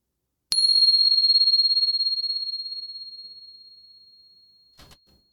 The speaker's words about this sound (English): Here comes the bell.